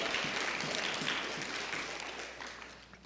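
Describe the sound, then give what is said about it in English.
A crowd at a Christian sermon claps together, giving a hand clap of praise to God, in a dense, steady wash of applause that stays loud at first, then gradually thins and fades toward the end, with no one speaking over it. “If you believe that, give Him a hand clap of praise.”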